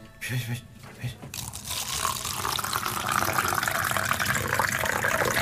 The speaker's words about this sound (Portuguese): Água.